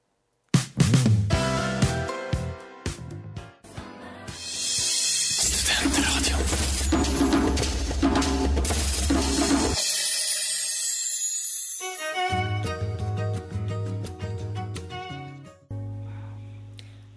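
Pop music plays loudly and continuously on a radio broadcast with a full, bright band sound, shifting into a different song partway through, then fading near the end. No one talks over it.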